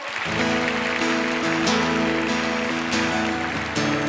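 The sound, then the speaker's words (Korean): An audience at a worship service claps steadily and loudly for several seconds in thanks and glory to God, a dense wash of applause while sustained keyboard chords play underneath. “여러분 이 박수 소리는 하나님이 받, 받으시는 박수 소리입니다.”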